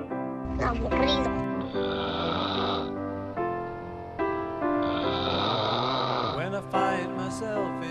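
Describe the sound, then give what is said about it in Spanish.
A person imitates a pig, at a caller's request aimed at the caller's father, with loud, nasal snorts and throaty grunts in several rough bursts over a steady tonal background. “¡Haz como puerco!”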